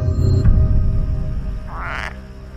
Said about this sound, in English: Are you making that noise? What noise? That noise. That's a frog.